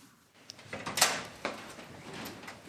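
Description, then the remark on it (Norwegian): The door of the negotiation room at the Storting opens with a bright latch click and a sliding, scraping rush of noise as four politicians come out, followed by a softer thud and faint rustling. “Ei dør åpner seg, og ut kommer fire nøgde, men også litt trøtte politikere.”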